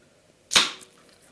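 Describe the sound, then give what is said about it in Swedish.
A can of Nocco drink is cracked open: one sharp hiss-pop with a bright burst of fizz that fades over a fraction of a second, then quiet. No one speaks. “nu ska jag öppna en ah, burk.”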